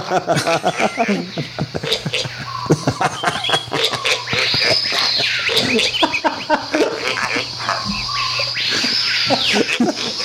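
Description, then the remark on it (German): A pig's rough, irregular grunts and snorts repeat throughout, set against a dense jungle backdrop of chirps and buzzing insects that swell in bursts, over a steady low hum. “Gut, kommen wir mit Schweinegrunzen begleitend”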